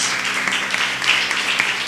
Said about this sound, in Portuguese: As palmas que louvam o Senhor Jesus meus irmãos.